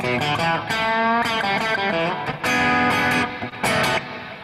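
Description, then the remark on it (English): A vocal imitation of electric guitar soaked in heavy studio reverb, a run of bright, sustained chords and notes, loud and continuous with brief dips between phrases, with no talking. “You know, I just hear that that that verb in, in yeah. Uh, whatever it was studio the Studio Three reverb.”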